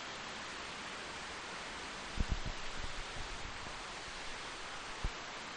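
Torrential rain pours down in the jungle in a steady, dense hiss that fills the whole scene, with a few dull low thumps breaking through now and then.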